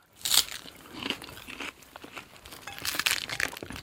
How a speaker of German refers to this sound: du sollst gar nicht so sehr in den Reis reingreifen, sondern du sollst den das Salatblatt in die Hand nehmen und dann kraftvoll zubeißen sozusagen. Wie so ein du bist Taco, da viel zu bescheiden. Ja, wie so ein Taco.